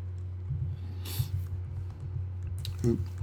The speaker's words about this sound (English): Clickety click on the keyboard.